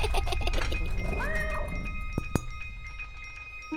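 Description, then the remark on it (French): A small grey cat, frightened by loud laughter, lets out a single drawn-out, wavering meow that sounds anxious, followed by a couple of sharp clicks over a faint steady background hum. “Et comme papa la regardait bizarrement, elle se mit à rire, à rire, à rire tellement fort que les murs de la petite maison tremblèrent le petit chat gris eut tellement peur qu'il alla se cacher dans son aquarium.”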